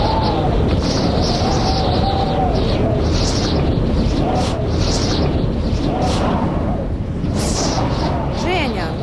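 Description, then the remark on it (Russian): Loud, steady wind roars and gusts throughout with a deep rumbling body, while faint bird chirps and whistling tones flicker through the rushing air. “что там за шум? Кать, так это ветер перемен”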